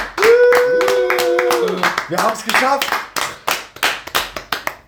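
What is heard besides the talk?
hands clapping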